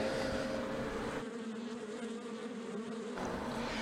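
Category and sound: insect, honeybees buzzing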